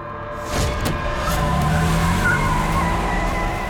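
A Mercedes car engine suddenly roars up after a brief quiet start, revving hard and staying loud as the car accelerates through an open gate, with a faint tire-squeal edge.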